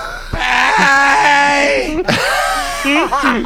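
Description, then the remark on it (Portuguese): A person screams loudly in two long, wavering cries, the second one sliding up and down in pitch before breaking off. “olha o grito do, da arte.”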